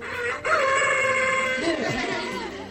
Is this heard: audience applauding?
no